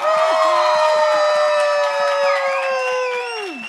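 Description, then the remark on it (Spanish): A loud, steady burst of audience cheering and applause for Estefanía de Lion Queen, with long whooping voices sliding in pitch over a quick, regular clapping pulse that carries on for several seconds. “Y un fuerte aplauso para Estefanía de Lion Queen.”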